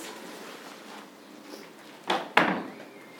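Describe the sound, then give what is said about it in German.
The second door of the Sankt Wolfgang chapel being opened and found open, heard as two quick clunks of the latch and heavy door about a third of a second apart, after a stretch of quiet hiss; no one speaks. “Jetzt schauen wir mal ganz schnell, ob da die zweite Tür auch noch auf ist.”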